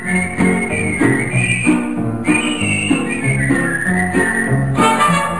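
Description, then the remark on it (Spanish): A bright whistled melody glides and wavers in a high register over a full, steady musical backing with a pulsing low accompaniment. The whistling stays loud and continuous, with no voices. “Los arreglos de silbido.”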